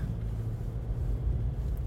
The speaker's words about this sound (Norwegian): Men krevende kjøreforhold. Oi, det er glatt, ja. ja. Nå er jeg glad for at vi har den gigantiske bilen din.